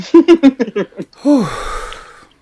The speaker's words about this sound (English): So take a take, take a deep breath, child.